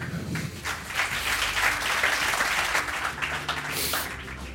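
Sustained applause from a large audience fills a hall as Minister-President Stefan Weil of the SPD enters, dense overlapping claps at a steady, fairly loud level throughout, with a faint murmur of voices underneath.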